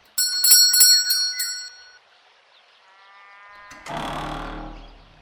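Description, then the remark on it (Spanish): A bell at a door rings out several times in quick succession, bright, then fades away, followed by a softer tonal sound and a rougher, noisy sound toward the end. “Ah, ah, y con campana la cosa.”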